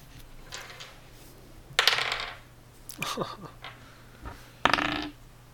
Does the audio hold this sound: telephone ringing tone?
no